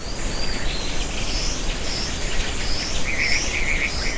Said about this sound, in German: Ja, jetzt sagt Ihnen das natürlich alles nichts, dieser Clarks Weaver, schöner Vogel übrigens, ganz gelb unterseits und dann so schwarze Brust, schwarzer Kopf, sehr tropisch anmutend, und lustige Töne von sich geben.